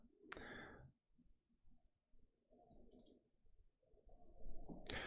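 Someone takes a drink: a sharp clink at the start, quiet slurping and swallowing noises, then another bright knock as the cup is set down.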